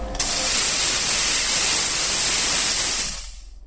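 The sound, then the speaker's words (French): A loud, steady hiss of a steam cleaner jet, with steam injected at 120 degrees to clean off wax and plaster, blasting for about three seconds, starting abruptly and tapering off at the end, with no voices. “de la vapeur qui est injectée à 120 degrés, qui permet de nettoyer comme il faut la cire et le plâtre.”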